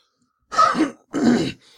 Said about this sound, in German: Moment, ich muss mal räuspern.